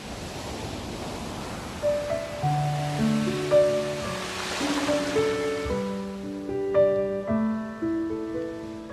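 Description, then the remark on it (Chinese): Sea waves roll in a steady, hissing wash that swells and recedes every second or two, while soft melodic music with sustained notes plays over it, as background for a reading of Pushkin's poem "To the Sea". No one speaks. “再见吧，自由奔放的大海，这是你最后一次在我眼前翻滚着蔚蓝的波浪，闪耀着娇美的荣光。”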